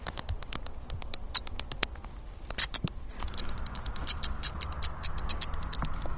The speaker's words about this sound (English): Let's listen to the sound of some bats.